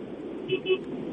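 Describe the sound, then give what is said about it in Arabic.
Two short car horn beeps in quick succession, fairly faint, over a steady background hum of noise, heard while a person is driving a car. “لا لا لا لا, لا حقيقي والله ما تسمع صوت الموتر والحركات أشوف دق بوري”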